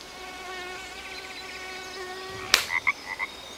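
Wetland ambience with a steady whine of insects and a droning chorus of frogs, broken by a sharp splash or snap and several short, high chirping calls.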